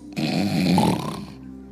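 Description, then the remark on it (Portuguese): A person imitates a loud snore with their voice: one long, rough, rattling inhale lasting about a second, then a quick fade to quiet. “Agora eu não sei como é que Jesus honra, roncava.”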